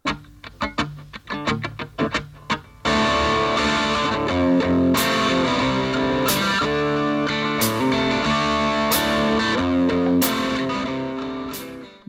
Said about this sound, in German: Der Anfang ist saugeil, wie ich finde. Findest das hört du? sich so an, das, das ist wie eine Gitarre, mhm. äh, äh so eine Art wie, wie eine äh, Kettensäge, weißt du, die du auch erstmal so anschieben musst.